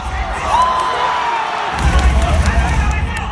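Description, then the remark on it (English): A crowd of about 5,000 Korean fans in an esports arena in Seoul, South Korea, screams and cheers continuously, loud and reverberant, watching 64 players compete in a video game match on stage, with a swelling low rumble joining the roar partway through and babbling voices mixed into the din. “cast a PUBG match in an arena packed with 5,000 screaming Koreans”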